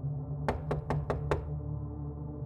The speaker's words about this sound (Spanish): Alrededor de las 11 de la noche, mientras estás en la oficina, es probable que escuches que llaman a la puerta.